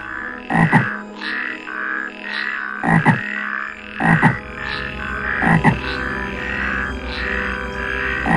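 A dense chorus of many frogs at a swamp croaking loudly and continuously, with sharper, louder croaks bursting out every second or so over the steady background din, resounding through the forest. No one speaks.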